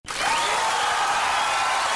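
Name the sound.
applause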